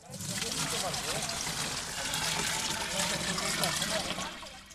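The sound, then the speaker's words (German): Water from a watering can or hose splashes steadily onto plants in a garden bed during the daily watering, a continuous hissing patter with faint murmuring voices underneath. “Das tägliche Gießen gehört dazu.”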